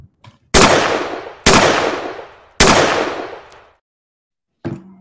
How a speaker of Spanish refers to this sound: Recuerden los, los escuchas de siempre. Ya saben que tienen que prepararse para ese escopetazo.